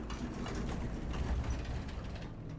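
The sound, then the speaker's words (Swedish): An elevator door slides open with a steady, grinding mechanical rumble and faint ratcheting clicks, holding an even loudness throughout with no voices. “Det plingar till och dörren börjar sakta att glida upp.”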